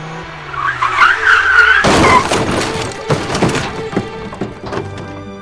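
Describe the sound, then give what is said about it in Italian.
Tyres screech as a car skids for a second or two on the Autostrada del Sole motorway, then a loud crunching impact hits in a minor rear-end collision, followed by scattered clattering and bumping of debris. No one speaks. “Niente di eccezionale, un piccolo tamponamento”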